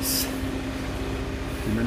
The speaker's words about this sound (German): Die Müllabfuhr? Nee. Das ist hier. Doch, das ist die Müllabfuhr.